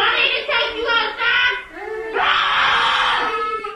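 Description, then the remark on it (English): Toddlers at Little Blessings Child Care and Learning Center in Hamilton, Mississippi, terrified by a person in a Scream-movie-style mask, scream and wail in loud, high-pitched bursts, a few short sobbing cries followed by a longer sustained shriek, distressed. “And the toddlers are terrified.”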